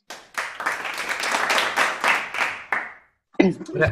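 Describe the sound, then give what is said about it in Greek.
A burst of applause from a small crowd, many hands clapping in a dense, crackling wash for about three seconds before it cuts off, followed by a voice speaking. “Πραγματικά, μόνο γι' αυτό πρέπει να βγουν χειροκροτήματα.”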